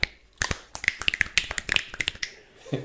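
A rapid run of crisp finger snaps, about a dozen or more sharp, bright clicks in an uneven rhythm, fairly loud and heard alone without any talking.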